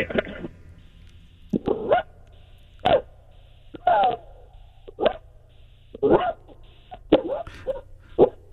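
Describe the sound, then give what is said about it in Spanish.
A voice imitates a small Yorkie dog yapping, about nine short, sharp barks in an irregular rhythm, fairly loud, with a faint hum underneath. “yo lo que hago es un perrito Yorkie.”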